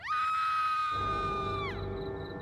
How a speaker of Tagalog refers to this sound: Pero wala namang nangyari hanggang sa may marinig kaming sumigaw mula sa ibaba.